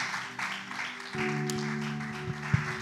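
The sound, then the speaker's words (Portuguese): A church audience claps for Jesus in a steady, dense wash of applause, with sustained organ or keyboard chords droning underneath and a sharp accent near the end. “Me dê uma salva para Jesus, uma salva de palmas.”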